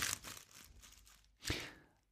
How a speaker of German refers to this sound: Ich guck mal nach. Ich bin wirklich neugierig. Es raschelt ein bisschen.